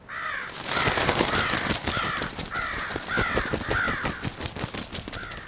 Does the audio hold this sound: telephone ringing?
no